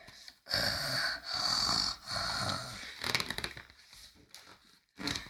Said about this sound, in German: Tita glüht wie eine goldene Kugel und schnarcht wie der Wind.